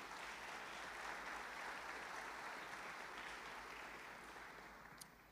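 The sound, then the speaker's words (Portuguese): A large crowd at a church service claps steadily for Jesus in a sustained, dense wash of applause that stays loud throughout, tapering only slightly near the end, with no voices standing out above it. “Vamos dar mais um grande aplauso para Jesus.”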